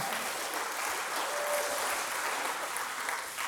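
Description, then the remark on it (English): Steady applause from a church audience marking the speaker's one year as full-time director of University Ministries fills the whole stretch, a dense wash of many hands clapping at an even, sustained level with no voices standing out. “showing that you clap for it shows people did not think I would survive one year, but.”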